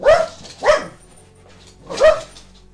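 A dog sitting by a balcony window barks three times, two quick sharp barks followed by a pause and a third, loud, with no one speaking.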